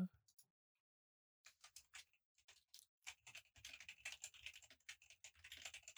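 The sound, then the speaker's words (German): Rapid clicking of keys on a computer keyboard, starting after a brief pause and continuing in irregular bursts, fairly quiet, with no voices. “So, Leute, sorry, ich habe gerade was tippen müssen.”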